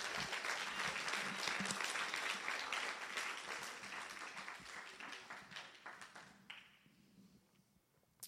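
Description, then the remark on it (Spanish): A church audience, called on by the preacher to applaud Jesus, bursts into loud, dense applause that holds steady for several seconds, then gradually thins out into scattered claps before fading away. “Si tú lo crees, dale un aplauso fuerte a Jesús.”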